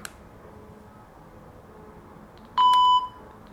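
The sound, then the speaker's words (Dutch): A single short electronic beep, clear and steady-pitched with bright harmonics, sounds from a label pen as it powers on when the button at its thick, speaker end is pressed, following a quiet stretch with a faint click at the start. “Dan gaan we een korte duwtoon op.”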